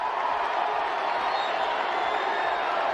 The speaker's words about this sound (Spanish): Con esto los Bravos se ponían adelante y la gente empezó a gritar MVP, MVP.